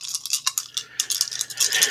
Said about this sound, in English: we um, roll. We have four. We earn four uh, attraction dice on that date.